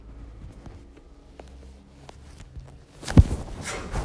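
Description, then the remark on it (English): During a guided breathing practice, after a few seconds of quiet shuffling and soft taps, a single abrupt, loud sneeze bursts out near the end, followed by a breathy, hissing tail. “Bless you.”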